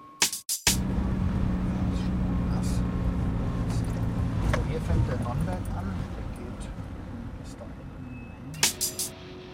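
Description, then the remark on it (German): Steady low engine rumble and road drone from inside a moving car on a short ride to a vineyard, holding for several seconds, with sharp clunks like a door or seatbelt at the start and a few knocks near the end. “vielleicht schwingen wir uns jetzt nochmal kurz ins Auto”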